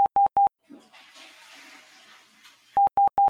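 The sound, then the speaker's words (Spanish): Three short, loud telephone line beeps sound in steady rhythm during a phone call, then a hissing, rushing noise like running water fills a couple of seconds before three more identical beeps close it out. “Perdona, que tuve que coger el teléfono, macho.”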